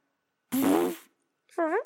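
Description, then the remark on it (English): A person imitates a fart with their mouth: one long buzzy, sputtering blat lasting about half a second, then a short pause and a brief, higher-pitched voiced squeak, both fairly loud. “tell me a food item, and I'll I'll do the fart noise that associates with it.”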